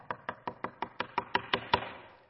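A rapid series of about ten knocks on a door, evenly spaced and growing slightly louder toward the end, heard up close with no voices.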